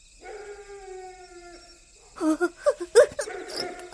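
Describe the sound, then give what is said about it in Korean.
A dog named Deulkkae, beside a cemetery, lets out a long, steady howl that drifts slightly downward, then breaks into a series of short, choppy whimpers and yelps, clear. “저 소리 들려? 들깨가 우는 소리야.”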